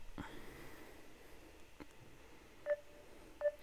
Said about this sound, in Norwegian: Jeg ringer, jeg.